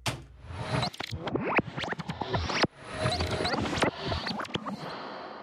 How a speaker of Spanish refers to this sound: Pues aquí va sonido de viaje en el tiempo.